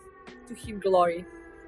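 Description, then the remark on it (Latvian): A phone ringtone mimicking an air-raid siren, heard on a bus driving through a forest in Poland: a brief electronic wail whose pitch sweeps up and down, swelling louder midway, heard alone without talk. “Braucot busā caur kādu mežu polijā, pēkšņi dzirdam trauksmes sirēnu.”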